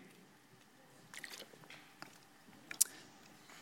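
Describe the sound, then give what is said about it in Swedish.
Quiet sounds of someone sipping and swallowing water: a few soft wet gulps and mouth noises, then a brief sharp click near the end, with no talking. “Ehm, och ehm, eh, jag måste få lite vatten här känner jag med.”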